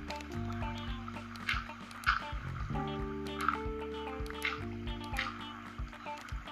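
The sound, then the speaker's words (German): Water flows and splashes steadily in a game-style sound effect, moderately loud, layered over sustained background music tones, with no one speaking, as the player's water pushes an iron golem into a corner. “ich treibe jetzt den Eisengolem mit meinem Wasser hier einfach dauerhaft in die Ecke.”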